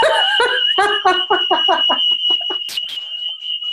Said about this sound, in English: my fire alarm is going off i think somebody knows how to turn it off